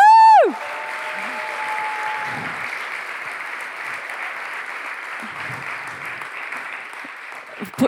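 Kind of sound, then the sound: crowd, audience applauding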